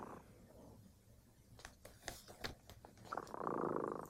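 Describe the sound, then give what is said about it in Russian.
A cat, Dremota, purrs softly and steadily, with a few brief rustling clicks in the middle before the purr swells louder toward the end. No one speaks. “Слышите, кот Дремота запел свою песенку.”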